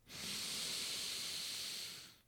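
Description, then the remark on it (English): A long, steady inhale drawn in through the nose, an airy hiss lasting about two seconds before trailing off into quiet, with no talking. “So we'll take a, a deep breath in through the nose, breathing in,”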